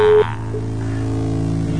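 A short, loud telephone beep is followed by a steady, continuous phone-line tone that hums on unchanged for the rest of the moment, with no voices, as a telephone line is picked up to answer a call.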